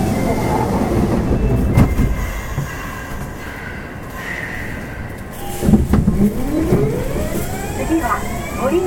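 A Kintetsu 7000 series train runs steadily on the subway Chuo Line between Hommachi and Nagata, with a deep rumbling roar, wheels clattering and rising and falling motor whines, loud throughout, with a brief screech of wheels midway.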